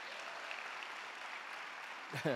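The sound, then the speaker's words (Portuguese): A crowd applauds steadily to the Lord, a dense wash of many hands clapping at an even level for a couple of seconds, before a voice briefly cuts in at the very end. “Aplauda mais forte ao Senhor.”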